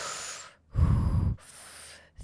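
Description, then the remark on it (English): Three breathy, hissing breaths, the middle one deeper and louder, a person imitating breathing in nitrous oxide through a gas mouthpiece as pain relief, with no talking. “And especially if you're someone that's using the gas, so the nitrous oxide or the happy gas, as a form of pain relief, because you're sort of breathing”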